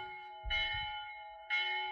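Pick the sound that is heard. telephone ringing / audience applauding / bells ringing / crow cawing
bells ringing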